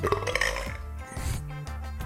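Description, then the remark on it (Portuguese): A loud, drawn-out burp rumbles low, with a croaky, voiced tone stretching through most of the moment, plus a few clicky knocks at the start. “Caralho, você conseguiu arrotar!”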